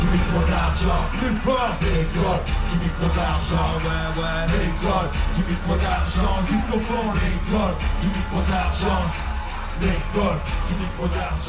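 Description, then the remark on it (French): A large crowd at the Orange party, packed into a cramped hall because of rain, claps in a steady rhythm while people yell and cheer throughout, a dense, loud, continuous roar. “Et euh, enfin, euh, bah, on va terminer sur du, clapping et hurlement en rythme”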